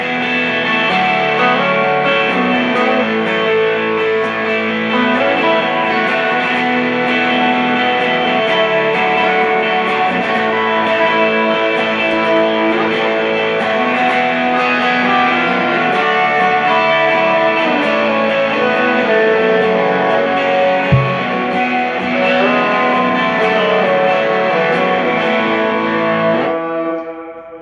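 A guitar with a capo on, heavy with effects and distortion, rings out sustained, shimmering chords, shifting through a few slow changes at a steady loud level with no talking, then cuts off abruptly.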